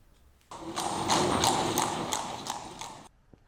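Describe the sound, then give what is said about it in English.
Horse hooves of a horse-drawn carriage led by four black horses clip-clop steadily on cobbles at Maltman's Hill, a run of sharp, evenly spaced knocks over a rumbling, gritty background, moderately loud, lasting a few seconds before stopping abruptly. “The area of Maltman's Hill is visited by a phantom horse drawn carriage led by four black horses, and complete with the sound of the clip clopping of hooves on cobbles, despite the road being tarmac.”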